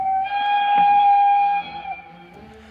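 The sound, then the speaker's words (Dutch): An American steam train whistle sounds one long, steady chord-like blast for about a second and a half, then fades away as low rumbling continues beneath, with no voices. “Een veel voorkomend motief is de weemoed die stations of treinen oproepen en meer specifiek de stoomfluit.”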